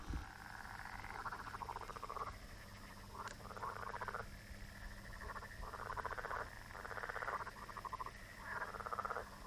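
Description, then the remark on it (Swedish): A steady chorus of frogs croaks in repeated pulsing bursts along a straight road with fields on both sides. The croaking is continuous and layered over a low background hum, with no voices present. “Fält på båda sidorna. Mer grodor.”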